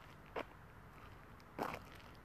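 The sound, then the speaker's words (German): Two crunching footsteps on gravel, about a second apart, as someone walks beneath old linden, plane and oak trees under a starry night sky; each a short gritty burst over a quiet outdoor background with no voices. “Unter meinen Füßen knirscht der Kies.”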